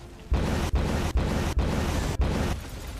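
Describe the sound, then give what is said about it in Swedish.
A loud, rumbling explosion sound effect, the same clip re-cut and looped about five times in quick succession, each burst cut off abruptly before the next begins, then fading slightly at the end. No one speaks. “Jo, vi klipper om samma ljudeffekt.”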